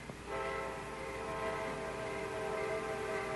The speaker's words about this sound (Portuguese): Espera aí. Você ouviu? O quê? O trem, não está ouvindo?